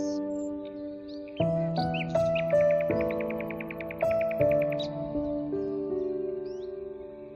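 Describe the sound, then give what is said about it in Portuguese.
Scattered bird chirps and a short trill sound over soft, sustained musical chords that swell in steps, with the birds staying fairly faint and light in the background. “O som dos pássaros.”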